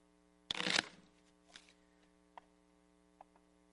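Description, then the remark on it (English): A deck of playing cards is riffle-shuffled in one quick, loud burst, followed by a few faint taps and clicks, with a steady low electrical hum underneath throughout. “now Gideon has shuffled this deck of cards”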